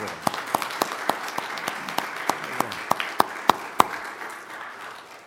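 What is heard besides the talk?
audience applauding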